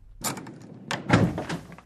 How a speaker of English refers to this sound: I stayed outside the door of another room while he unlocked it